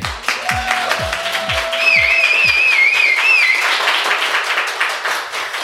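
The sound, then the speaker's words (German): A live audience at a pop-up store in Berlin applauds steadily, a dense crackle of many hands clapping, while someone whistles a wavering, high-pitched whistle through the middle of the ovation. “Ihr hört es schon im Hintergrund. Wir sind im Vi Pop-Up Store hier in Berlin und wir sitzen hier mit, oder ich sitze hier mit Patrick Bartek und einem wundervollen Publikum”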